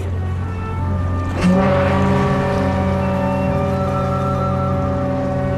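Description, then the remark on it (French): A deep, sustained ocean liner horn blares loudly and steadily for several seconds as the ship departs Southampton at a quarter past noon, with a brief burst of noise early on and no one speaking. “Il est midi 15 et le bateau appareille.”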